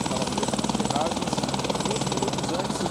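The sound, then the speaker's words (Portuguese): The Military Police's Águia helicopter rescues a car-crash victim near São Paulo on a Saturday morning. Its rotor thumps in a fast, steady chop over a loud, constant engine roar for the whole clip, with a voice faintly underneath. “Essa é a vítima mais grave que está sendo socorrida pelo helicóptero Águia da Polícia Militar nesta manhã de sábado.”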